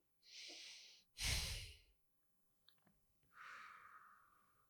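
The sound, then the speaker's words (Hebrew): Slow, deep breathing of a seated woman with eyes closed, deepening the in-breath and drawing out the out-breath: an inhale, then a heavier, gusty exhale, a short pause with a few faint clicks, then another long breath in. No one speaks. “תראי איך את יכולה להעריך את הנשימה החוצה, להעמיק את הנשימה פנימה ולהעריך את הנשימה החוצה.”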